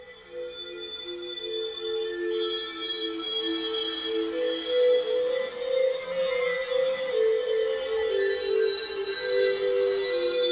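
Trippy intro music of layered, shimmering electronic tones with a steady low drone, playing at an even, moderate volume for about ten seconds with no one talking, introducing the show Some Call Me Tim on Mutiny Radio.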